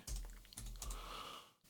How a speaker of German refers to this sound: Ach, diese Tastatur macht mich noch verrückt